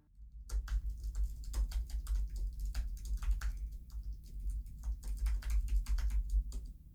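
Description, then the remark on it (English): Quick, irregular clicks of someone typing a text message, fairly crisp, running steadily for several seconds over a low background hum with no talking. “I just texted, Do you think Sophia knows what Rizzoli and Isles is?”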